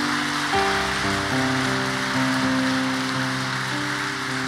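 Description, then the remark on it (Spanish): A church audience gives a strong applause for the Lord Jesus, clapping steadily and densely for several seconds while sustained keyboard chords shift slowly underneath. “Y si tú lo crees, dale un fuerte aplauso al Señor Jesús.”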